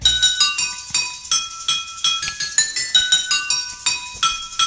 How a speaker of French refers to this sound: il s'amuse à reprendre plein de chansons avec simplement une baguette qui tape sur des verres plus ou moins remplis d'eau